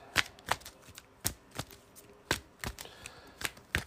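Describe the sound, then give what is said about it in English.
A deck of cards being shuffled during a card game, before an encounter card is drawn: a series of sharp, crisp riffling snaps in an uneven rhythm with brief pauses between bursts, with no voices. “Let me shuffle this real quick.”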